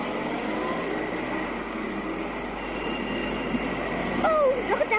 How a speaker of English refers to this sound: Look right and left. Big lorry. We better wait till the traffic stops.